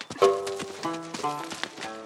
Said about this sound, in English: He had already hopped back on his horse and galloped off toward the city.